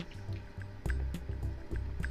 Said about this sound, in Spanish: Disculpen mi voz, dejen, tomo un poco de agua deliciosa.